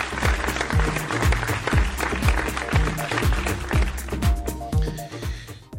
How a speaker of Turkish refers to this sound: Kocaman bir alkış gönderiyorum sizlere.